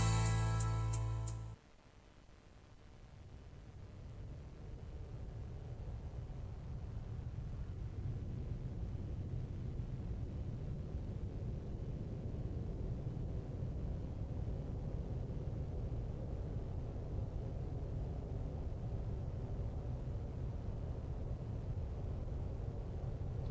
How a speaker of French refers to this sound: Il y a du vent au début. Non, non, je vous dis, ça arrive, hein, vous inquiétez pas.